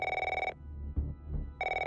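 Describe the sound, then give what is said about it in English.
A telephone bell rings in two loud, trilling bursts with a short quiet pause between them, with no one talking. The phone is at the front desk of a gym during a kickboxing class. “Nicole Hockley was just a few minutes into her kickboxing class when the phone started to ring at the front desk at the gym.”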